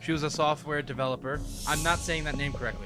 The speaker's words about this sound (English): God bless you. So, I think you just sneezed.